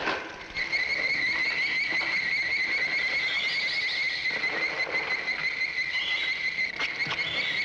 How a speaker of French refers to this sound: C'est un son très électronique, pas du tout réaliste, et je pense que c'est le son des fourmis dans Vem.